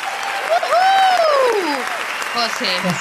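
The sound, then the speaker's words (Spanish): Steady applause from a crowd fills about three seconds, with voices calling out and an exclaiming, sliding tone rising and falling over the dense clapping. “Esto va con aplausos, pero aplauso así.”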